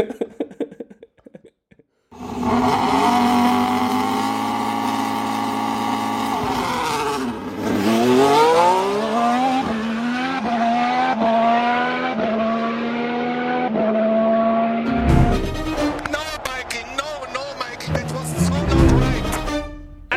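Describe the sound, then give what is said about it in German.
Loud, high-pitched Formula 1 race car engines scream as several cars accelerate together at a race start, their whine climbing and dropping through rapid gear changes for about eighteen seconds, with a busier burst of revving near the end. “Lights out and away we go.”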